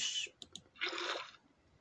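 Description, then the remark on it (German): A short whooshing splash of water in a video game as water is placed to go up a mountain, preceded by a brief hiss and two quick clicks, then a fuller gush lasting about half a second. Moderately loud, with no voices. “Ja, wir machen das jetzt einfach mit dem Wasser hier hoch, bevor ich hier wieder eine Rocket und so wieder ganz”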